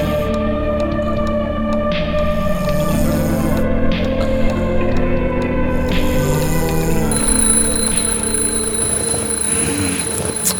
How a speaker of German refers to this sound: Das impertinente Klingeln seines Weckers riss … aus dem Schlummer. Mist, verdammte Kacke! fluchte er, drückte schlaftrunken auf dem Handy herum